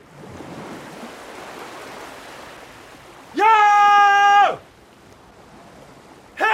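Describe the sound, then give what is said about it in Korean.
A steady wash of sea waves rolls against the shore of the East Sea (Donghae) as darkness falls, broken by a loud, sustained tonal cry in the middle and another brief one at the very end. “어둠이 깔릴 때까지 바닷가에 앉아서 소주를 마시던 양락은 밤이 깊어 얼큰하게 취해서야 일어섰다.”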